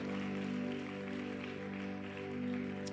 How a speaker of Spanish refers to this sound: Y todo el pueblo de Dios dijo amén. Den un aplauso a Dios por vida nueva, por vida nueva, por vida nueva.